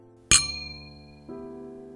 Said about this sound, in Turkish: İki kadehin sesi. Tırmalayıcı, rahatsız edici.